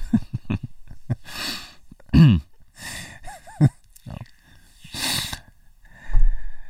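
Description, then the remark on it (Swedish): Irregular bursts of snorting and heavy, breathy panting from a person sitting, some short and sharp, others drawn out and noisy, with a low rumble near the end and no talking. “ja, men du sitter ju bara och frustar och flåsar.”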